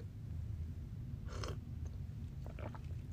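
A quiet sip of coffee: a brief slurping burst, then a few soft wet mouth and swallowing sounds over a steady low hum, with no one talking.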